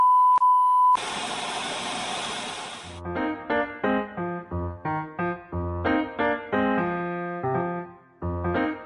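A short intro jingle: a steady electronic beep, then a loud hissing whoosh, followed by a bright, bouncy synth melody of quick plucked notes and a bass line, with no talking.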